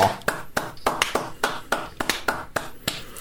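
Hands clap about eleven times in a steady, even rhythm, roughly three claps per second, each a sharp crisp smack with no voices in between.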